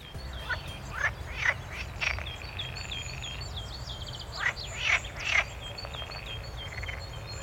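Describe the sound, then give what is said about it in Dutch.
Frogs croak in scattered bursts from a distance in a fen nature area just outside Nijmegen, along a walking route. Several short calls cluster near the start and again later, over a steady low outdoor rumble with faint bird chirps. “We horen in de verte horen we de kikkers kwaken.”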